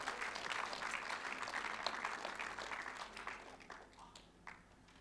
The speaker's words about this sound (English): And so, church, can we um, give it up, a clap our hands for